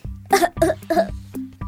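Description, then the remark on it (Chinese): Three rough, throaty coughs in quick succession, each a short loud burst, over a steady low hum that continues underneath and lingers after them. A rich man in a big house keeps coughing from the black smoke pouring out of his many chimneys. “有钱人一直咳嗽，”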